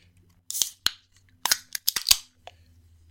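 Cans of APA beer cracking open: a quick series of sharp metallic clicks and snaps with short bursts of fizzing hiss, coming in two loose clusters over a few seconds, with no talking.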